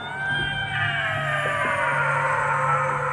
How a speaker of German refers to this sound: Kön könnt ihr vielleicht mal, ähm, so richtig laut schreien? Ja, und bitte ganz gruselig. Ja, das ist schon gut, aber bitte noch ein bisschen lauter.